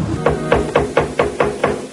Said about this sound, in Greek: Κάποιο χτυπάει την πόρτα.